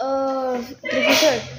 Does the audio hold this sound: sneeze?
yes